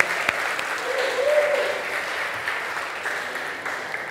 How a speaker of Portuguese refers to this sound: quem aqui está visitando nossa igreja hoje pela primeira vez? Levanta a mão. Vamos aplaudir ele, gente, vamos. Bastante gente, né?